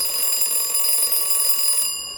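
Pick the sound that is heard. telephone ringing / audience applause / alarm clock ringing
alarm clock ringing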